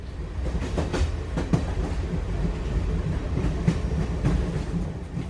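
A passenger train rolls along the rails with a steady low rumble, broken by repeated clacking bursts as the wheels pass over track joints, heard from inside the carriage.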